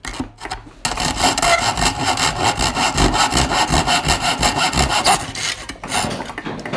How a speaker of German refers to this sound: Aber jetzt geht's weiter säge hier gerade dieses Metall durch. Das macht tierisch Spaß.